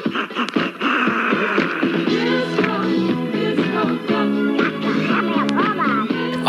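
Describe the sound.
A disco track plays loudly and steadily, with a squawky duck-like voice quacking in bursts over the beat; the quacks come from a voice imitating a duck rather than a real bird.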